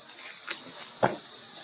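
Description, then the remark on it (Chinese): Dolphin vocalizations: a steady, thin high-pitched whine runs throughout, broken by a faint click partway through and a sharper, louder click-burst later. No one speaks. “有节奏的发出嗡嗡嗡声、哒哒声或者嘎嘎嘎的声音的时候，他们就是一支很棒的合唱团。”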